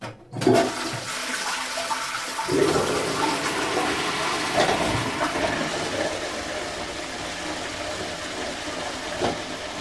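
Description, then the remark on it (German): Several toilet flushes, used as a homemade water-music instrument, roar loud, a continuous rush of gushing water that surges again several times as new flushes overlap, with no voices. “Und wer gerade keine Flaschen zu Hause hat, der kann für seine Wassermusikanlage auch einfach ein paar Klospülungen nehmen.”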